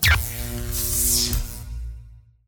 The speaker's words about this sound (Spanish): Ay no, se cortó la luz. Justo ahora. ¿Por qué? ¿Será que solo es en mi casa o es general? Todo el barrio sin luz.